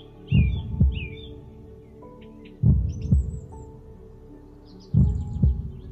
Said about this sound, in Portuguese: E repara no seu coração. Já está fraco e quase parando.